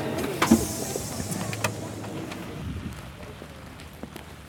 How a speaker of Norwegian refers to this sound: Det regner på torget i Sandnessjøen.